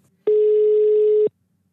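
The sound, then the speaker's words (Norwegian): A single steady telephone tone of an outgoing call to Bård Tufte Johansen, a loud, clear electronic beep lasting about one second before cutting off, with near silence on either side and no voices. “Og nå skal jeg faktisk ringe og ta en prat med Bård Tufte Johansen om suksessen, skal vi se.”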